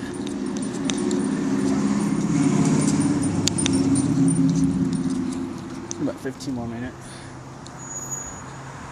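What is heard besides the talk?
road traffic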